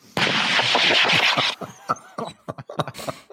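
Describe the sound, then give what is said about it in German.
A burst of gunfire sound effect: a dense, loud rattle of rapid shots for over a second, followed by scattered individual bangs and echoing cracks that taper off irregularly. “Feuer!”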